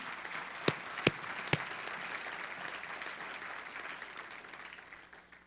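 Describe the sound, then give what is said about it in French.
A church audience applauds the Lord for the Holy Spirit with a steady, dense wash of clapping, a few sharp louder claps standing out near the start, the applause sustained throughout and tapering slightly at the end. “Une main d'acclamation au Seigneur pour son Saint-Esprit qui est venu.”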